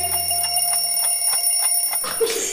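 An alarm clock rings in a steady, evenly spaced pulse over a sustained high tone, ending in a brighter, noisier burst just before the sound cuts off.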